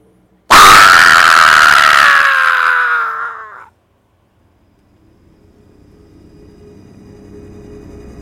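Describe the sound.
Loud voices of police infantry agents let out a drawn-out shouted war cry lasting about three seconds, which cuts off abruptly and leaves a faint low rumble.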